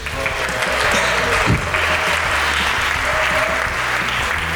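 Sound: audience applause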